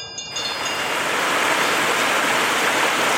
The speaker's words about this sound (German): Wie aus einem breiten Spalt quillt das Wasser aus der Karstwand raus, springt in mehreren kleinen Wasserfällen über die Steine und meandriert näher durch die Fläche vor Alp durch.